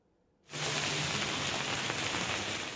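Steady rain comes in abruptly after a brief silence, a dense, even hiss of drops pattering and continuing without a break to the end.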